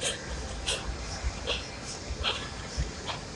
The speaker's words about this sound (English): Like that breath is literally what gets me up. You know what I mean? That's what I think about on all my exercise. That breathing out is literally what's allowing me to push that exercise through.